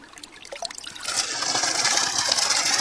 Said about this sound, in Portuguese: Acabamos de colocar para funcionar o sistema de abastecimento de água, na verdade o bombeamento aqui da aldeia Restinga. Olha aí, pessoal. Esse é o bombeamento, agora são 10 horas da manhã.